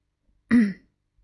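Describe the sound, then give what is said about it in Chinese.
A single short, soft, polite throat clearing, a brief low rasp lasting about a third of a second, with silence before and after and no speech. “银屁法斯特礼貌地清了清嗓子。”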